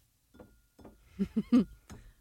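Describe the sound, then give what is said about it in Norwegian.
A drinking glass is clinked several times in an irregular series of sharp taps, with the middle strikes louder and ringing briefly, against a quiet background. “Og nå skal jeg klirre til glasset”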